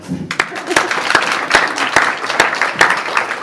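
An audience applauds steadily, a dense wash of many hands clapping, with sharper claps landing at an even, rhythmic pace throughout. No one speaks over it.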